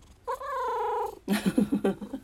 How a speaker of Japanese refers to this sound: 猫って寝ぐぜりするんですよ知ってます人間のあの子供みたいに。うん眠くなったらあのこうやってぐぜってこうゴロニャンしてくるんですよ。